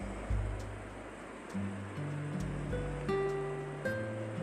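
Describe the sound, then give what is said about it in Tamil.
Water splashes and pours steadily as someone bathes in cold water, a continuous rushing wash with a brief louder splash near the start, while a short rising run of musical notes plays over it. “அப்பா இந்த பச்சை தண்ணியில் குளிக்கிறதே ஒரு தொல்லை தான் அதுவும் நல்லது தான்”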